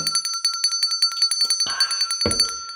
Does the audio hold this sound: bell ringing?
yes